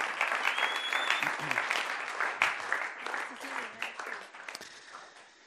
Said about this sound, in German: Ich glaube, ähm, es ist wirklich ein riesen Applaus wert.